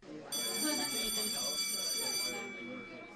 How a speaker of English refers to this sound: I hear that school bell ringing. Class is about to begin at this morning's Smooth Draws University.